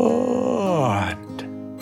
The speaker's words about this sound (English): Max yawned. Mia saw him and she yawned